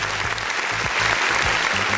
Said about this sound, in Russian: Я даже вот аплодисменты поставлю.